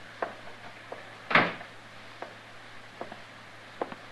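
A door swings shut with one solid thump, surrounded by a handful of small, sharp clicks and knocks against a low steady hum; no one speaks.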